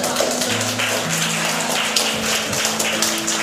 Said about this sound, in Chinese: OK OK，我们给平衡一个掌声。